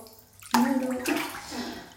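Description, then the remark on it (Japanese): Bath water sloshes and splashes in a tub as a person takes a bath, two distinct surges about half a second apart, fairly loud, with a hollow, echoing bathroom ring and no one talking. “お風呂に入っております”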